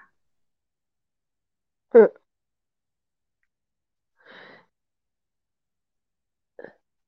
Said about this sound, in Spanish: Me estaba riendo demasiado. Ok. Eh, me hicieron toser.